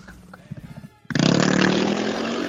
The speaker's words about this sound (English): Oh, I'm so sorry. There's a motorcycle coming by.